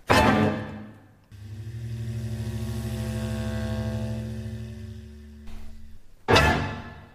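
Experimental orchestral music by an ensemble: a loud crashing attack fades into a sustained, low buzzing drone chord that holds steady for several seconds before another sharp crash breaks in.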